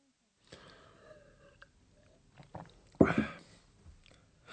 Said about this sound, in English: … takes a large sip of beer and then says to Andreas